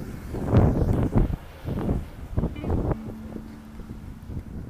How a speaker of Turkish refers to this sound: Hafif hafif rüzgar esiyor belki uğultu yapıyordur şimdi size.